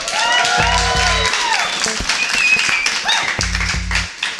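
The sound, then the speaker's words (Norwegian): A live audience at the Nobel Peace Center applauds steadily, a dense wash of clapping with scattered whoops and cheers rising above it, plus a couple of low thumps; no talking over it. “Og det er publikum. Kan vi høre litt lyd fra dere?”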